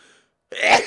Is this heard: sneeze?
yes